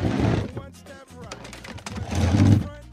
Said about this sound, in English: And I think we have a sound effect of furniture being pushed up against a door left over from the end of Donald Trump's term.